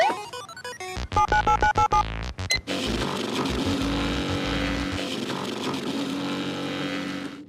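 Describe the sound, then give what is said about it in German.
A video game fast-travel effect in which the player is sent through the game world as a fax: a quick run of electronic beeps and chirping tones, then a loud, steady burst of rushing static noise, with no voices. “Und für die Faulen unter euch, ich weiß, da gibt es so ein paar, keine Sorge, wir können uns von einem Tot als Fax durch diese Welt schicken lassen. Hört sich im Spiel dann übrigens so an.”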